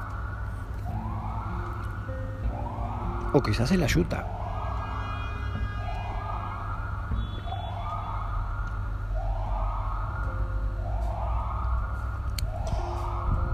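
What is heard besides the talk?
ambulance siren passing by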